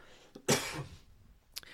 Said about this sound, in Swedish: Vad skönt att du kan hosta ut den här, att jag tänker så här, nu sprider han antrax ja, rätt i ansiktet på mig.